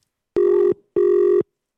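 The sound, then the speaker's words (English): Two electronic ringback tones of a phone call, each a steady buzzing burst under half a second long with a short gap between, clear with no voices. “it's ringing.”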